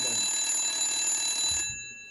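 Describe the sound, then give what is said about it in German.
A telephone rings with one sustained, bright, buzzing burst lasting over a second, then cuts off abruptly, leaving quiet room tone. It sounds loud, with no voices. “Oh, Telefon.”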